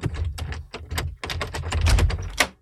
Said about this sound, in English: Hey, uh, is there uh, something knocking around in there, bro? I. It's. I, um, wait a minute. It sounds like it's it's uh, the door here. Wait.